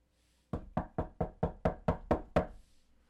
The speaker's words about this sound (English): It's been three hours since I arrived back to the hotel. Now someone's banging on my door.